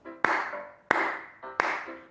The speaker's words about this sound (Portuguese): Quando eu bater uma palma, vocês devem correr. Quando eu bater duas palmas, vocês devem pular. E quando eu bater três palmas,